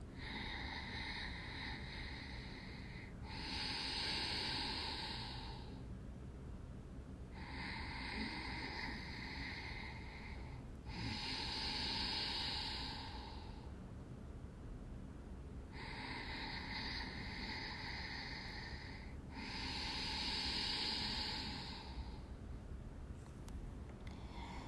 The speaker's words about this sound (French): On part sur un cycle de 5 respirations. On inspire. Par le nez. Inspire à nouveau par le nez. et essaie vraiment de resserrer l'air à l'arrière de ta gorge.